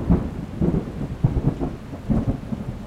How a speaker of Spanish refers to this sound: El 21 de septiembre de 1629 inició una tormenta sin precedentes